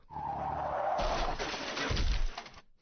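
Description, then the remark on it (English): A tire screech rings out, a sustained tonal squeal that gives way to broad, harsh skidding noise with low rumble, loud, lasting a few seconds with no talking. “I hope no one ever crashes because they hear that.”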